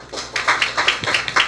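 A burst of applause from a small group welcoming the first panelist at a discussion, many overlapping bright claps forming a dense, uneven patter that holds steady at a moderate loudness for the whole stretch, with no voices.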